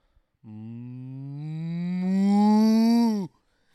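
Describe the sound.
A single long, drawn-out moo made by a human voice imitating a cow as a yodeling exercise, rising slowly in pitch and swelling in loudness before cutting off abruptly, clear with no other sounds.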